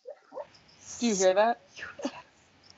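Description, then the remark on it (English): A sleeping, dreaming female dog lets out a wavering, drawn-out whimper, followed by a couple of soft, muffled woofs, while a person briefly speaks. “is that a dog?”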